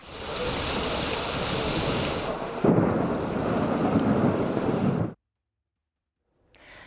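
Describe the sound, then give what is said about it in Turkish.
Heavy rain pours in a dense, steady roar during a storm in western Istanbul, Turkey, while thunder rumbles low beneath it, swelling louder midway before the sound cuts off abruptly into silence, then faintly resumes. “İstanbul'un batısına sağanak yağmurdan önce hortum geldi.”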